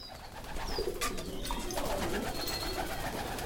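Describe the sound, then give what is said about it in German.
About two dozen white pigeons coo and murmur excitedly together in a wooden coop on the LMU biocampus in Martinsried near Munich, with bursts of wing flutter and scattered chirps over a steady, busy background. No one speaks. “Aufgeregt flattern und schnattern sie durcheinander, die vielleicht zwei Dutzend weißen Tauben in ihrem Holzverschlag auf dem Biocampus der LMU in Martinsried bei München.”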